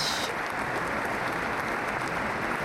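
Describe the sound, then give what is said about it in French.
An assembly rises to its feet and applauds steadily, a dense, continuous wash of many hands clapping at even loudness throughout, with no voices standing out. “Et après avoir exprimé ça, en fait, l'Assemblée s'est levée à applaudi”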